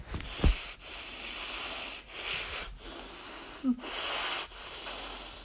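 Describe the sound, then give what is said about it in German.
Harsh, distorted breathing through a mobile phone: several loud, rough breaths in and out with brief pauses between them, sounding raspy, with no talking. “… atmet gerade durch sein Handy.”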